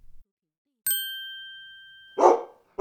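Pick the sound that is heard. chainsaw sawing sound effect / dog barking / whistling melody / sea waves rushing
dog barking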